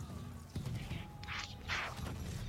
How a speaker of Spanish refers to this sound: Estamos en medio de la jungla. Ya, dejamos, sentado que estamos en la jungla. En la jungla se escuchan disparos, hay personas disparándose, unas personas con récord asiático Estamos en Vietnam.